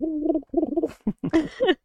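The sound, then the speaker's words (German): A person imitates a parrot, making a string of hooting, warbling bird-like calls in several short bursts, the last ones rising into brighter squawks, with no ordinary speech. “ich glaube, das ist nicht das Papageigeräusch.”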